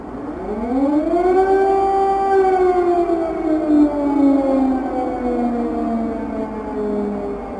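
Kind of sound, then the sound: signal or alarm, air raid siren wailing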